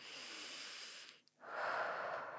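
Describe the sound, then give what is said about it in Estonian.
A long, deep breath drawn in, a brief pause, then another airy, rushing breath follows. No talking, just breathing. “ja kümnenda hingamise juures, kui sa tõesti nagu sügavalt”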